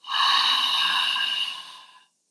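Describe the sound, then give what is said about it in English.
A long, steady deep breath pushed out slowly, a breathy hiss lasting about two seconds that gradually fades. It's clear, with no talking. “Deep exhale,”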